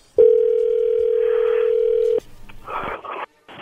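A loud, steady telephone dial tone holds for about two seconds, then cuts off and gives way to faint clicks and muffled noise as the call connects.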